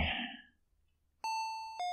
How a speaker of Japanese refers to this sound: 今、ピンポン鳴った。こんな夜中に。